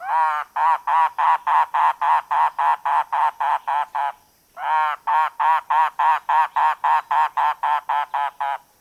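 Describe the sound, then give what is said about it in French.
A mangrove cuckoo gives two long runs of harsh, guttural notes, each a steady series of about a dozen evenly spaced calls separated by a short pause, loud with no talking. “Et comme à l'habitude, voici le chant de l'oiseau à l'honneur aujourd'hui.”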